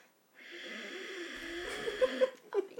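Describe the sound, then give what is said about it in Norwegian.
A long, drawn-out inward breath, raspy and faintly voiced like a soft snore, lasting over two seconds and ending with a few small clicks and a catch, demonstrating a technique of breathing inward into oneself. “Eh, men du puster rett og slett innover. Forestiller deg at du puster innover i en J.”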